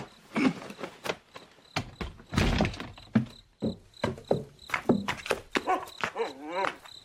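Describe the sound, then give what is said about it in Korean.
A purebred Jindo dog of a 200-year pure bloodline, named Alfred Grand Prix III Kim Gu, gives a run of short, sharp barks and yips with high, wavering whimpers in between, the whining rising and falling toward the end. No one speaks. “어이, 진도의 200년 순수 혈통 알프레드 그랑프리 3세 김구 너도 기가 안 차지?”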